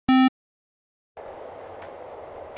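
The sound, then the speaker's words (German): A short loud electronic beep, a pause of silence, then a steady low rumbling of a tram rolling along rails across a city at 3:30 in the afternoon, continuous, with no one talking. “Ich sitze in der Straßenbahn.”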